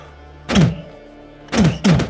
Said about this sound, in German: wie drei, wahrscheinlich Wölfe, gegen diese Tür prallen und ja, das hoffen wir die mal, wollten gerade reinkommen. Aber ja, ein Schloss ist zugefallen und Wölfe sind nicht dafür bekannt, dass sie Türen besonders gut öffnen können.